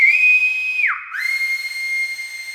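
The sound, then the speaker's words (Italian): A loud, piercing whistle, given from a tree branch, holds a steady high pitch, dips sharply downward for a moment, then rises back and sustains again, with no voices around it. “Spiccò un balzo, montò su un ramo e fece un fischio talmente forte che i ragazzi si dovettero tappare le orecchie.”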